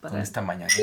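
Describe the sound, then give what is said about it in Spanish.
Glasses clink together once in a quick toast with a small glass of water, a bright ringing chime near the end of a short stretch of someone talking. “Salud con este vasito de agua.”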